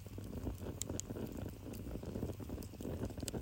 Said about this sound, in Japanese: 今ですね3泊目とということで、これ今聞こえますか焚き火の前で今この収録してます。